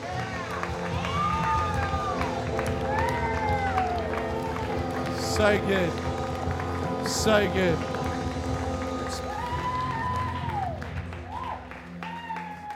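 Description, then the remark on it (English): A crowd at a Nations Youth gathering claps and cheers steadily throughout for a group of people, a dense wash of clapping with rising and falling shouts and whoops on top, while someone speaks over the noise. “Let's give a massive applause right now for these people.”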